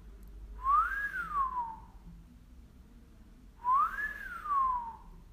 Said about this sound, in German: Das Training für die Bauchkapsel ist ganz simpel, nämlich du und ich, wir fangen jetzt mal an zu pfeifen. Jetzt machst du es einfach mal ich kann nicht so gut pfeifen, aber macht nichts.